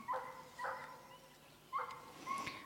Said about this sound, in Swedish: Jo, och nu börjar den här grannens hund också som jag funderade på igår att hur ska det bli om vi bandar den? För den här kan gnälla i flera timmar.